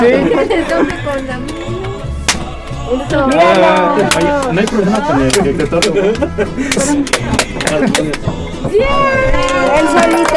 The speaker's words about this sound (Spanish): Apláudele fuerte.